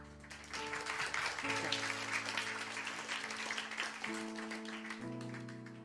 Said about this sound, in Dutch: oké, we zijn nu begonnen met klappen, dus we gaan voor iedereen klappen. Ook als het niet klopt, gaan we klappen, want diegene heeft, is uitgestapt.